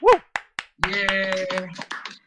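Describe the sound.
A few sharp, spaced claps quickly give way to a burst of studio applause mixed with voices cheering and calling out, lively and fairly loud, fading after about two seconds, as a show guest is introduced.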